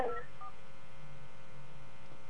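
A couple of quick telephone keypad tones beep right at the start, followed by a low, steady background hum with no voices.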